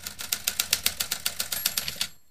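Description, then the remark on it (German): Rapid, steady typewriter keystrokes clack away, about fifteen sharp strikes in just over two seconds, moderately loud, ending with a faint bell-like ring and then quiet. “Dieser Aktenbestand ist damals geschrieben worden mit Schreibmaschine.”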